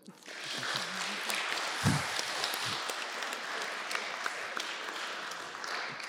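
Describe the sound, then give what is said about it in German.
A crowd applauds steadily for several seconds, a dense, even patter of many hands clapping at once, with a few muffled voices faintly beneath it. “Ich finde es einen Applaus wert.”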